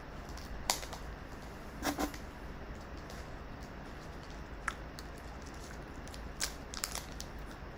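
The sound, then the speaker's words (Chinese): Crinkly cellophane packaging being handled while someone tries to tear it open, with sharp crackling bursts at irregular intervals over a steady low hiss. The crackles are moderately loud and bright, and no one speaks. “我之前买的玻璃纸太太太硬了，这是自己买。”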